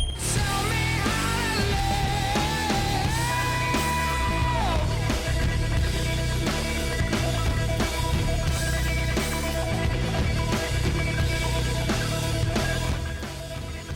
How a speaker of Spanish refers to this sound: Para quienes no saben, el trémolo es un efecto que por ejemplo sabe usar de taquito